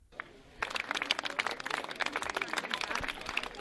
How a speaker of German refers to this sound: Nachdem allerdings nicht der Darsteller, sondern sehr trickreich eine Theaterpuppe geköpft worden war und das zahlreiche Publikum noch kräftig applaudierte, habe ich Zuschauer nach ihren Eindrücken befragt.